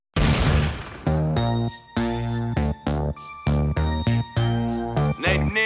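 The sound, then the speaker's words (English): The opening of a hip hop track by a California indigenous hip hop artist: a loud beat with deep booming bass and choppy, stuttering synth stabs in a steady rhythm, with no vocals yet. “Next up, I've got uh, California indigenous hip hop artist”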